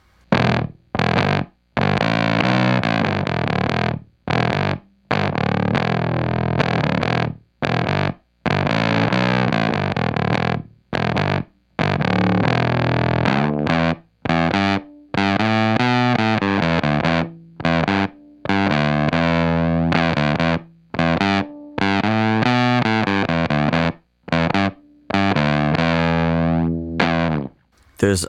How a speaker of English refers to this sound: almost a tickling like effect that we get from the type of fuzz that we get from the pep box with the bass. I was using a pick with the bass six, by the way.